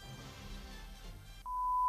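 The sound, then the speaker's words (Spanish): A steady, pure electronic censor bleep covering an insult cuts in abruptly after a moment of muffled low rumble and holds as a single loud continuous tone to the end. “Bueno, este es el pitido de censura porque aquí es donde pone un insulto que no vamos a ah, reproducir.”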